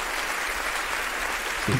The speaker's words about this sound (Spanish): ¿Dónde, están los aplausos? ¿No, ¿No tienes el botón de aplausos? ¿No lo has configurado aún? ¿no?